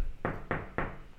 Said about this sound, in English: that's the sound of me knocking on the wall of my cube